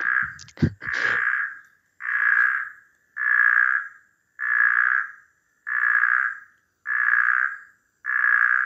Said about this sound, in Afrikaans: Ons kry vier soorte van hulle in Suidelike Afrika, waarvan een die snorkmodderpadda moontlik in die Hofmeyer omgewing kan voorkom. Nou sy roep klink weer so.